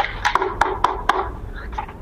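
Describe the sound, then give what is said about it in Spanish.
Four sharp, dull knocks on a thick comic book, evenly spaced, followed by a brief softer rustle. “Hay alguien, hay alguien en la puerta.”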